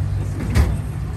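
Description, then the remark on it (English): A drawer slides shut with a single short thud over the steady low rumble of an idling vehicle interior. “Your drawer's open. Hold on.”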